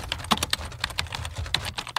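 Rapid, irregular clacking of keys on a computer keyboard, a dozen or so sharp clicks over two seconds, moderately loud with a low hum underneath and no voices.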